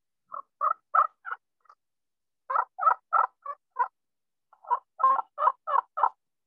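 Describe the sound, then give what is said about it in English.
A petrified wood friction turkey call imitating a hen plays three short runs of raspy yelps, four to six notes each, separated by brief pauses, played at the top, middle and bottom of the call to sound like three different birds; clear, with no talking. “I'm gonna play it up at the top, and then the middle, then the bottom, and there's three different birds.”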